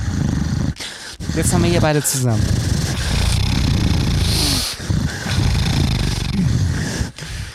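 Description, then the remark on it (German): A voice makes a rough, rasping snore-like noise through the nose, sustained almost throughout, with a brief spoken phrase near the start. “Es geht durch die Nase, ne? Ja. Wow, das ist toll. Manche kennen es auch vom Schnarchen”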